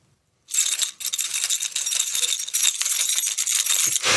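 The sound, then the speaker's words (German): A man holds a small bunch of keys in his hand and jingles them steadily for about three and a half seconds, a bright metallic clinking with no voices, starting after a brief silence. “Zur Beschreibung, ähm, er hält ein kleines Schlüsselbund in der Hand und klimpert mit den Schlüsseln.”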